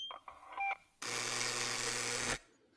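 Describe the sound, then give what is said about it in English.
A few quick electronic beeps, then a loud, harsh intercom door buzzer drones steadily for over a second, buzzing a visitor in, before cutting off abruptly, prominent with no voices. “Um, I'll buzz you in.”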